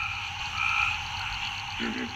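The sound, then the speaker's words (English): A dense chorus of frogs croaking and trilling together at night in a swamp, a steady layered wash of calls with one deeper croak rising near the end, no voices. “Once night falls, you'll start to see frog eyes if you shine a light. So it's teeming with life.”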